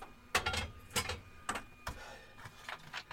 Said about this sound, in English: You can probably hear the workshop now.